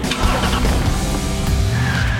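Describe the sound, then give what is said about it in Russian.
A Skoda Kodiaq sweeps through a corner during a test drive on Mallorca, its tires squealing in a sustained screech over a steady engine and road roar, loud, with no voices. “Едет Кодиак, как и любая Шкода, очень хорошо. Повороты машина прописывает с немецкой точностью.”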